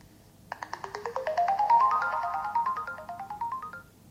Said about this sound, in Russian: Мы слышим звуковой сигнал и еще один звуковой сигнал, который означает, что прибор находится в первом режиме.